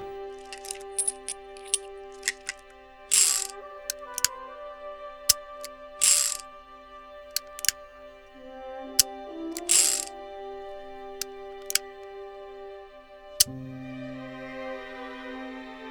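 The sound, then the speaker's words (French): A revolver cylinder holding a single bullet clicks and spins: sharp metallic ratcheting clicks scattered irregularly, with three short whirring bursts as it turns, ending in a low mechanical hum. No one speaks. “Une seule balle dans le barillet du revolver, et je recommence jusqu'à m'éclater à cervelle.”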